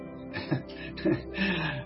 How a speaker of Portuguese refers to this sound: É, chorando que nem eu contando historinha.